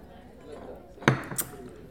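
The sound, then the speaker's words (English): Beer glasses clink together in a toast, one sharp bright knock followed quickly by a second lighter ring over a soft background murmur. “All right, let's clink because the real test is the taste.”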